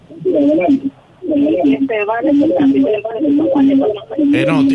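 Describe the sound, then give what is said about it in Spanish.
A caller's voice speaking Spanish comes through a narrow, tinny phone line into a morning radio show, smeared by an echo as the caller's own radio feeds the broadcast back, with continuous overlapping talk filling nearly the whole stretch. “perdón, tiene eco. Tiene que llamarnos de nuevo, bajar el volumen de su radio, por favor.”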